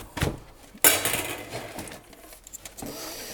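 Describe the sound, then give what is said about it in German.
Clean metal pots clank and clatter as they are put back into a clean drawer, with a sharp knock near the start followed by scattered lighter clinks and scrapes. “Ja, ja, ich räume die Töpfe jetzt wieder ein, die ich gerade raus habe und äh, die sind jetzt schön sauber.”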